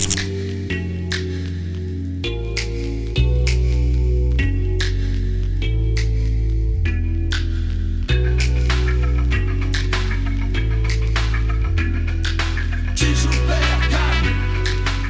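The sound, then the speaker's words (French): Moody trip-hop beat with deep, heavy bass notes and crackly, grainy samples, playing steadily at full volume for the whole stretch with no voices. “cet album c'est un monument, beat bass bien lourd, digne des prods S, des gros samples qui grésillent”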